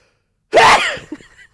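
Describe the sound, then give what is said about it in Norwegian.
A single loud sneeze bursts out of silence with a sharp voiced blast, then trails off into a few softer breathy sounds. “Nå må jeg nyse.”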